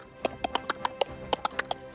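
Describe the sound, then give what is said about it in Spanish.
Scissors snip quickly, about ten crisp metallic clicks in an uneven, rapid rhythm over two seconds, with no voices. “sonido de tijeras ah. recortadas.”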